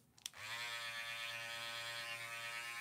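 After a brief click, cordless hair clippers with a rotary motor switch on and run with a steady, loud motorized buzz full of dense harmonics, holding constant with no talking.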